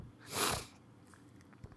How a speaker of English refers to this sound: people definitely think I'm doing cocaine the whole time because I'm sniffing